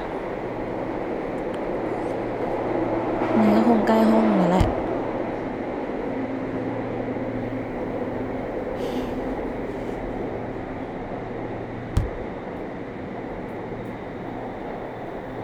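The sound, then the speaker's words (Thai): A subway train rumbles steadily along the rails, a brief rising-and-falling motor whine early on and one sharp clunk later, while a person speaks briefly over the constant noise. “ผู้โดยสารโปรดทราบรถขบวนนี้ให้บริการที่สถานีหน้า หากท่านต้องการความช่วยเหลือกรุณาลงจากรถและติดต่อเจ้าหน้าที่สถานีรถเสียจริงด้วยขอความไม่สะดวกูว่าแล้วแม่งวิ่งเลยชัวร์”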